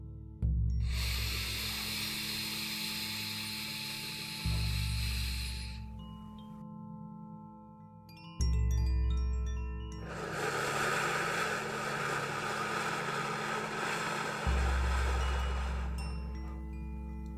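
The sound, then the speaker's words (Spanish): Slow, deep breathing: two long, airy breaths of several seconds each, air let out slowly through the mouth, separated by a pause, over a soft, low, sustained musical drone. “Voy a seguir respirando Así puedes seguirme, guiándote por el sonido de mi respiración.”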